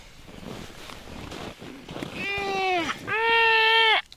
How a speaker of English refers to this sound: There are more than a hundred seals here laying near an open crack in the ice. They're Weddell seals, gray with white spots. Most are female.